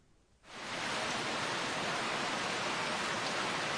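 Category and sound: nature, heavy rain falling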